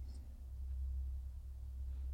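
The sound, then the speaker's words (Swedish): Steady low-frequency rumble of a car cabin on the move while driving to Halmstad, Sweden, a constant droning hum that fills the background with no voices present. “Och, eh, jag fick helt enkelt eh, bege mig ner till Halmstad idag och är på väg dit nu, så vi gör det här... Eh, I, ja, jag gör det från bilen helt enkelt.”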